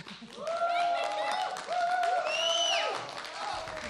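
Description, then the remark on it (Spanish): A crowd applauds steadily with loud cheers and rising whoops over the clapping, sustained for several seconds before easing off slightly at the end, following a live band set in the room at Radio Nam. “Fuerte el aplauso”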